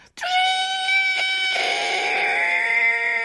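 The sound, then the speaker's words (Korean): A voice imitates a whistling kettle with a high, steady, shrill tone held for about three seconds, loud, its pitch wavering only slightly, with no talking. “그거는 주전자 아 그건 주전자”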